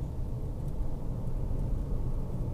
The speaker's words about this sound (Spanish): si ves que me detengo, porque sigo me la conduciendo y estoy pendiente de, los carros y todo eso.